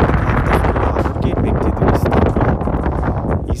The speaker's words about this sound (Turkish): Bu rüzgarla beraber biraz da hava soğudu tabii ki.